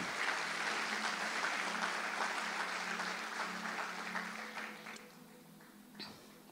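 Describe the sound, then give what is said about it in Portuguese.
An audience applauds the Lord during a church service in a dense, steady wash of clapping that gradually thins and fades over the final seconds, with a faint low hum beneath. “Aplauda o Senhor.”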